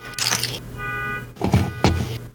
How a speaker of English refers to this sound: There's a car honking outside. I'm not sure if it's being picked up. Okay, it's stopped.